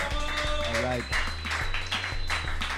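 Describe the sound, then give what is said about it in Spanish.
Audience applause and cheering for the band's drummer, steady and fairly loud, mixed with scattered voices and a low sustained hum underneath. “Tiene como un level de aplauso muy Es que toca muy chido, güey.”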